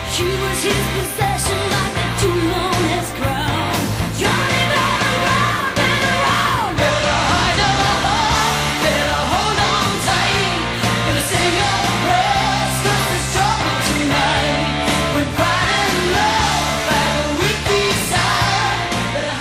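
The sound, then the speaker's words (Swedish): A 1980s rock song released in 1988 plays at full volume, a raspy, powerful female voice belting over driving drums, bass and guitars, dense and steady from start to finish with no talking. “Den låter så här.”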